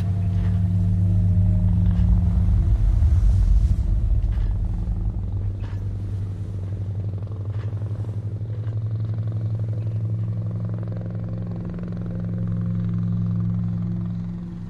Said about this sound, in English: As I lie now on the ground, my eyes steadily drifting shut, I hear the distant sound of a helicopter and realize that I have a better brother than I deserve.